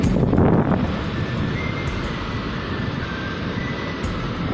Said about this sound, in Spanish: Ese sonido es el mar.